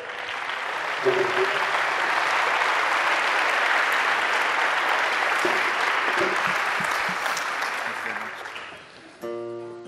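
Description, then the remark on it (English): A large audience claps steadily and loudly for several seconds to welcome a singer coming out to sing, a dense wash of applause that fades near the end as a voice and harmonic tones begin. “So, this is …. Welcome him.”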